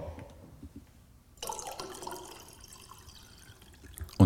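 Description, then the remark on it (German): After a quiet moment, sparkling tap water pours into a glass, a steady splashing, fizzing hiss lasting a few seconds, followed by a brief knock at the end. “Und ansonsten, ich fange mal an, was ich heute trinke. Und zwar einen 2021er Jahrgang ähm, Leitungswasser gesprudelt.”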